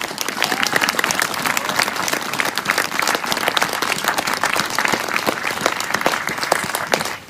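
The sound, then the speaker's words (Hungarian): A crowd applauds steadily for Elekes István, mayor and joint opposition candidate for Zala County's constituency no. 2, dense overlapping claps forming a loud, continuous wash of sound that holds for several seconds before tapering off at the end. “Most az előválasztással kiválasztottuk itt az önök körzetében, Zala megye kettes számú választó körzetében, Elekes István polgármester urat, egy nagy tapsot kérek még egyszer Elekes Istvánnak, a közös jelöltünknek.”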